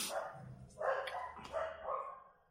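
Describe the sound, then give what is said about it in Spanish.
Dogs bark in a quick run of about four sharp, fairly muted yaps, spaced closely together, with no one talking over them. “gracias perros por hablar, los perros siempre me...”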